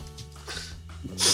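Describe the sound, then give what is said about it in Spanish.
A single sneeze: a short, muffled build-up followed by a loud, hissing burst of breath at the end. “Salud.”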